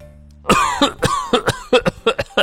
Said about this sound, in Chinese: 小泼猴和哼哼猪佯装要离开，随后小泼猴猛地转身，往空中撒了大量的胡椒粉。一个身影从树林中现形，他剧烈的咳嗽着，身体也跟着颤动起来。